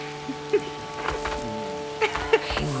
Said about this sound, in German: Krass. Hast du eine Freude ab dem Regen?